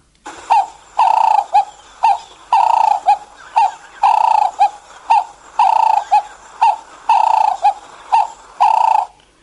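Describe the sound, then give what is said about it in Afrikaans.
A Cape turtle dove calls over and over in a steady rhythm, each phrase a long hoarse coo followed by shorter ones, fairly loud with no talking. “Dan is daar natuurlik die wat bekend gestaan het altyd is die Kaapse tortelduif en met die naam gewone tortelduif wat so klink.”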